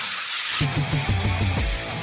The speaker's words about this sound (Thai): สเปรย์น้ำมันฉีดโซ่คุณภาพสูงเวนลอยเชนลูปกระป๋องสีฟ้า ด้วยคุณสมบัติแทรกซึมลึกถึงก้านและข้อต่อ ช่วยให้ทนแรงดึงและแรงกระชากได้อย่างดีเยี่ยม ยืดอายุการใช้งาน ป้องกันสนิมและฝุ่น